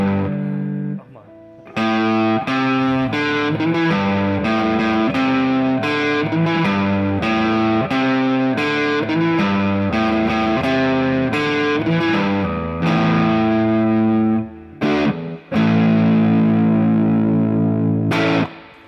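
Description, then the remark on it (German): A distorted electric guitar played through a Fender amp, with the gain near the middle, plays a loud riff of repeated chord strikes in a steady rhythm, breaking briefly before one last chord rings out and sustains. “Das heißt, auch aus so einem Fender-Amp, der eigentlich so als cleaner äh, Zeitgenosse daherkommt.”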